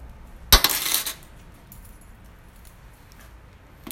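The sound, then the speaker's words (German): A short, bright metallic jangle of keys near the start, lasting about half a second, followed by quiet with faint small clinks. “Ich muss gerade noch meine Schlüssel”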